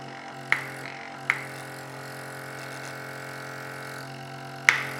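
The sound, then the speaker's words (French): A machine that injects and aspirates hums steadily with a constant airy whoosh of blowing and suction, broken by three sharp clicks near the start and end. No one speaks. “Qu'est-ce que tu mets ta main là où c'est blanc, ça souffle. C'est ce qui injecte. Ok. Et là, ça aspire.”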